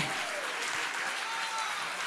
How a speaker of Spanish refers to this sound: Si le vas a dar un aplauso al Señor